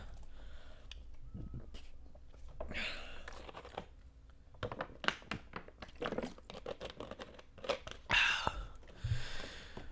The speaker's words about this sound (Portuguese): Pera, deixa eu tomar água, gente.